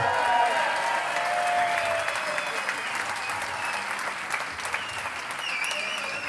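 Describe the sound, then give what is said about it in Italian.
An audience applauds in a dense, steady wash of clapping that holds at a fairly even loudness for about six seconds, with faint crowd voices and a few whistle-like tones mixed in. “Fate un bel applauso.”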